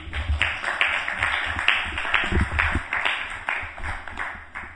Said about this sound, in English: Thank you very much. Round of applause for Prabhupada.